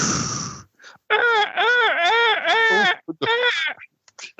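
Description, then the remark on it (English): Someone imitates a seagull with their voice: a loud run of rising-and-falling wailing calls, after a brief breathy shushing hiss imitating waves at the start and a short pause midway. “that's a seagull.”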